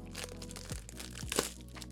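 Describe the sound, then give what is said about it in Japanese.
Continuous crinkling and crackling of plastic film being ripped open as a newly bought software package is unwrapped, with irregular sharp crunches and one louder tear near the end, no talking. “あのこうバリバリ言ってるのはね今開けてる今ソフト開けてんだけど”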